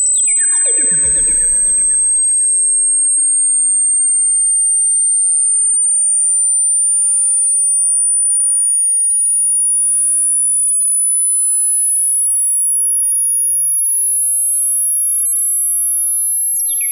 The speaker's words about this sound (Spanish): Así que aquí va y ustedes me dicen, escuchan o no escuchan. Les voy a repetir, personas mayores de 40 años seguramente no pueden escuchar esta frecuencia.